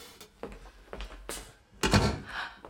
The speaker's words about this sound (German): Was wollen Sie? Warum schließen Sie die Tür?